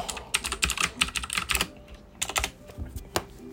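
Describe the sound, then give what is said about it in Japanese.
Quick, irregular computer keyboard clicks in bursts in a home office, clear, a flurry of keystrokes, a brief pause, then a few more scattered taps with no voices. “なんか、気がついたら今キーボードを触ってた。”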